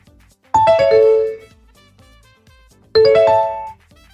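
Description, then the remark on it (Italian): Two short, new electronic notification chimes from the NVDA screen reader on a Windows computer, each a bright multi-note ding ringing briefly before fading, spaced a couple of seconds apart in otherwise quiet surroundings with no talking. “come sentite i suonini sono bellini sono nuovi ding, sono molto fini”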